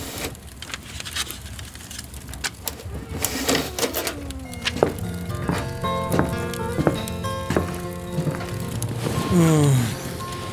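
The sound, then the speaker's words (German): A crackling fireplace fire with sharp, irregular pops and snaps, set against a sustained tonal hum that swells near the end. “ließ sich Marcel auf den Armsessel fallen und starrte auf das prasselnde Kaminfeuer”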